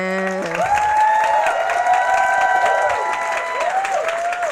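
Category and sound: crowd, applause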